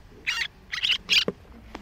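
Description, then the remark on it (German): High, raspy begging calls from a tiny duckling that has seen an earthworm held out in tweezers for feeding, three short bursts in quick succession followed by a couple of faint peeps, with no voices. “hat das Tierchen den Regenwurm gesehen und wir hören das völlig andere Geräusch, das Bettelgeräusch.”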